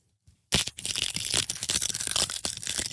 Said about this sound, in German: Ich muss noch einen Glückskeks öffnen. Achtung. Das war nur die Tüte. Achtung.